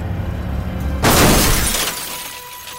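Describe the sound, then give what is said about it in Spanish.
A car, out of control with its driver dead and his foot on the accelerator, travels 268 meters at 85 km/h and slams into a traffic sign in the roadside ditch: after a low rumbling lead-in, a sudden loud crash of breaking and shattering bursts out, then fades over about a second, with no voices. “El vehículo recorre fuera de control 268 metros a 85 kilómetros por hora hasta estrellarse con una señal de tráfico en la cuneta.”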